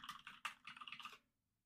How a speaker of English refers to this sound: You're gonna hear. You're gonna hear some typing right now.